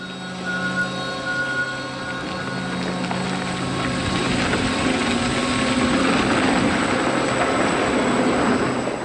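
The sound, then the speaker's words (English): The world's largest electric vehicle, a 45-ton heavy machine converted from diesel, with tires the size of an average man, runs with a steady mechanical whine and droning hum that grows louder and rougher over several seconds, with no one talking. “So they got the necessary people and know how together and built the world's largest electric vehicle weighing in at a whopping 45 tons. It's an impressive beast with tires the size of an average man, and it sounds pretty neat too.”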